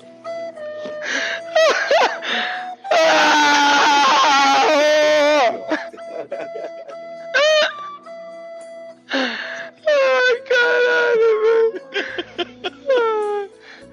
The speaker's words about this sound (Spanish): Ese al que escuchas llorar primero y reír después es Neymar Jr. Este vídeo del jugador del PSG se hizo viral hace algunos días después de perder en directo en su canal de Twitch un millón de dólares jugando al póker a través de Internet.